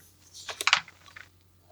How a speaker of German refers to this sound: Das würfelt der, das würfelt der Meister.